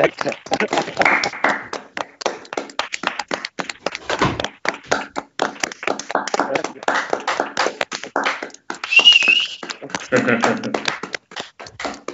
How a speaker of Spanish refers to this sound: Nos queda nada, un minuto y y aplaudimos que no ¿eh? podíamos estar nosotros contraprogramando el aplauso.